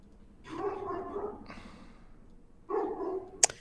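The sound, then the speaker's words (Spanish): A dog barks twice, each time a drawn-out, throaty bark lasting almost a second, with a short pause between. A sharp click follows right after the second bark. “enviar al perro que seguro que acaba con El perro pues se los come, el perro los pilla y dice a tomar por culo aquí.”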